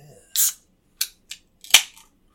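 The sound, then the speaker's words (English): A beer can cracks open with a short fizzy hiss, followed by a few sharp metallic clicks and snaps, fairly loud, with no talking over it. “All right, let's pop the stop.”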